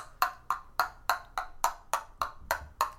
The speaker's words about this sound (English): okay, here, just so people could hear, this is the stirring my drink noise.